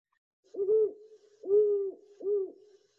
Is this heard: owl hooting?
yes